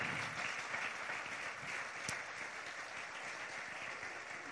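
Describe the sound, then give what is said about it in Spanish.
A church audience applauds for Jesus during a sermon, a dense, continuous wash of clapping that stays at an even level for several seconds with no voices standing out. “Si usted lo cree, den un aplauso a Jesús.”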